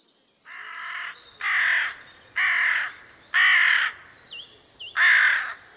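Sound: carrion crow cawing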